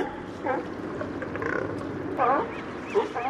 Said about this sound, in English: These noisy mammals are California sea lions. Producer Mark Seth Lender made this recording at a floating pier outside Elkhorn Slough in Monterey Bay.